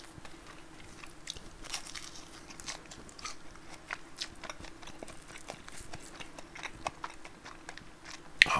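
Steady, irregular chewing on bread during a lunch break: soft, crackly mouth clicks and crunches repeating every fraction of a second at a quiet, even level, with no talking.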